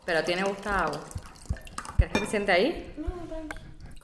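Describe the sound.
Water glugs and trickles from an old gin bottle into a glass at a dining table, with a few sharp clinks of glass and tableware, and faint voices.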